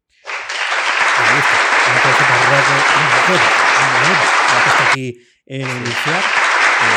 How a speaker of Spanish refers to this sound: para que sepáis que lo difícil que es que darle al botoncito y que suene el aplauso. pues mira, te voy a poner un aplauso a un riesgo de que no suene